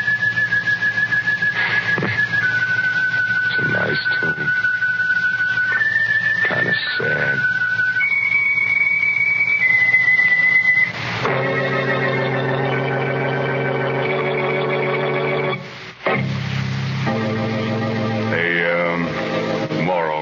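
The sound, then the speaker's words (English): Someone whistles a stepwise song melody, clear, over a steady low hum for about ten seconds; then a fuller, harmonic music-like sound takes over. “Ever since I made my report, I've been been hearing that song in my head, like like somebody whistling it.”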